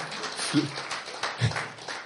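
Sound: audience clapping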